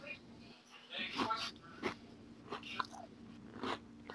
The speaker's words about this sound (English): So I apologize for uh, …'s chip crunching everybody